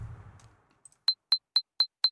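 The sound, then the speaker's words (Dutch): A smartphone notification chime, played while light strips on the phone's back light up with it: five bright, glassy pings in an even, quick rhythm, clear, following a brief low rumble of handling noise at the start. “afhankelijk van wat voor notificatie krijgt, gaan ze anders oplichten. Ook ten opzichte van elkaar. En dat gaat dan ook nog eens gepaard met een heel leuk geluideffect”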